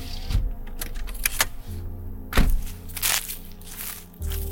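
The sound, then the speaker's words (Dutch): Footsteps crunch over the forest floor as someone walks through the woods, even over fallen trees, a handful of irregular steps with sharp snapping bursts, set against a low steady rumble and no voices. “Dan gaan we even een stukje lopen.”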